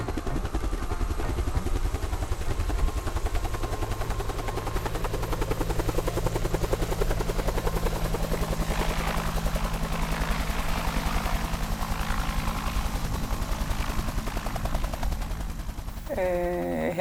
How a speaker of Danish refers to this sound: helikopteren kan ikke lande. Så, øh, så det bliver fyret sådan et øh, bur ned i sådan med gitter. Øh, som jeg så først hopper ind i. Og så sammen med en redningsmand, som også øh, bliver fyret ned fra, fra helikopteren.